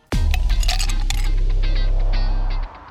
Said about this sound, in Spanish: Mira, acaba de pasar un auto por afuera. ¿Será Toreto? Mm, no.